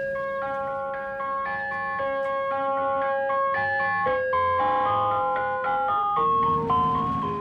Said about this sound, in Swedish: till den här läskiga glassbilen